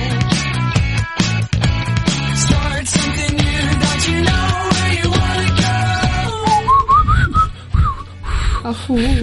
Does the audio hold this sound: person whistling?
yes